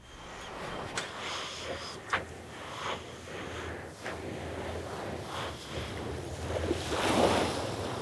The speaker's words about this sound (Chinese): 而待会大家会听到一段声音，是呼吸与海浪的声音。